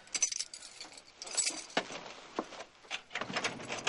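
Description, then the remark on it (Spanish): A bunch of keys jangles in irregular metallic bursts, bright clinks and rattles shifting as a man takes them from a young woman's hands and opens a door, with no voices present. “Coge el manojo de llaves de manos de la chica, abre la puerta y sale.”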